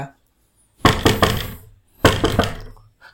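Two quick bursts of knocking on a door, each a short cluster of three or four firm raps, separated by a brief pause. The knocks are fairly loud, with no talking.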